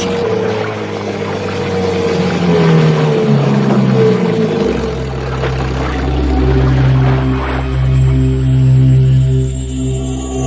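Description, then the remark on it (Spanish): A motorboat launched from a submarine drones steadily, its low hum deepening and swelling partway through as it draws nearer, with a faint watery wash beneath. No voices are heard. “Se abrió la escotilla y aparecieron unas figuras oscuras que botaron una lancha motora y se acercaron hasta nosotros.”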